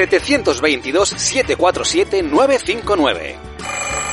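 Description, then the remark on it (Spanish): A man talks rapidly, then an old-fashioned telephone bell starts ringing near the end, a loud, bright, continuous metallic ring, for the listener phone line of the show Nostálgicos Empedernidos. “Pues envíanos tus recuerdos al teléfono del oyente nostálgico y participa en el programa.”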